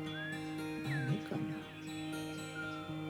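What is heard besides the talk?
small bird chirping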